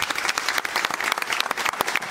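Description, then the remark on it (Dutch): An audience breaks into applause, a dense, steady wash of many hands clapping at once with crisp, bright texture and no pauses, fairly loud throughout. “Maar eh, geef hem een applaus, want er zijn alleen maar winnaars in deze.”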